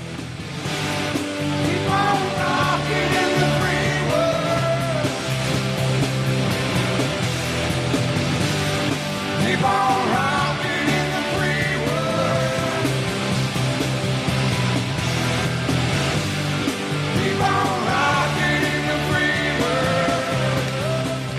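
A loud, dense live rock band performance at the 1993 MTV gala, with distorted electric guitars, steady bass and pounding drums playing continuously, the full band sound filling the whole stretch with a raw, energetic concert feel.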